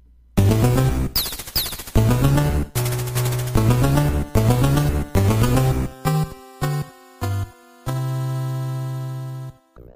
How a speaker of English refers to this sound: like the little fart noise at the end.